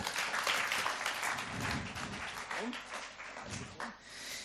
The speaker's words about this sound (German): Applaus für die zwei